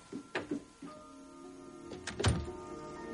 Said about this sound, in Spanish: Kate se da la vuelta y se va. John cierra la puerta.